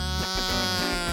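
A loud, nasal kazoo buzzing tone with rich harmonics, wavering through a few short pitch changes in a quick burst, steady with no talking. The kazoo is a premium one from the shop Kazoos and Stuff.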